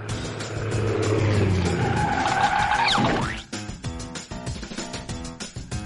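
A car engine roars, then tires screech in a loud skid with a rising, sweeping squeal as it brakes hard, cutting off abruptly around three seconds, followed by choppy clattering sounds.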